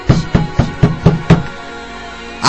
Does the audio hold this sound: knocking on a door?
yes